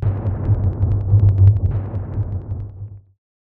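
Deep, rolling thunder rumbles continuously for about three seconds, with crackling bursts layered over the low roar before it fades out abruptly into silence.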